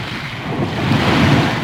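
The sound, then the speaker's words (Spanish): Wind buffets the microphone over a steady wash of waves while a boat sails across open water between Agua Amarga and the Atleta del Moro in the Cabo de Gata Natural Park. The sound is a loud, continuous rumbling roar with no voices. “Bueno, estamos ya aquí navegando entre Agua Amarga y la Atleta del Moro y debajo, en el Parque Natural Cabo de Gata, está esta pradera de Posidonia oceánica que cada vez está más amenazada.”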